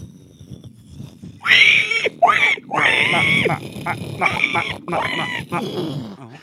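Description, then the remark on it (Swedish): A person vocally imitates a pig moving toward the asphalt, starting quietly as if far away, then bursting into loud, harsh squealing grunts in choppy bursts that sweep past before fading. “Det var bra grisljud.”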